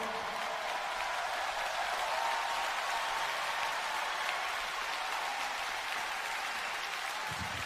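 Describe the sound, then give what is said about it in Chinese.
Steady, sustained applause from a large crowd for a children's choir and adult singers on stage, a dense wash of clapping that holds an even loudness throughout with no voices standing out. “再一次掌声！”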